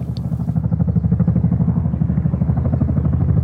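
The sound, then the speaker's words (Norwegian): A helicopter drones steadily high over Jotunheimen on 27 August 1976, carrying environment minister Gro Harlem Brundtland with advisers and power developers; its rotor chops in a fast, even pulse with a low engine rumble that stays loud throughout, with no voices. “Høyt over Jotunheimen svever et helikopter.”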